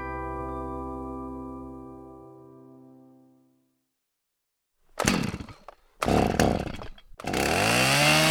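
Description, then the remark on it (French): A chainsaw used to cut wood idles with a steady harmonic drone that winds down into silence, then roars back in three loud revving bursts, the last one sustained. “Eh oh, tu vas la fermer ta grande gueule avec ta tronçonneuse de merde Tu ne veux pas faire de bruit le dimanche après-midi pour couper ton bois”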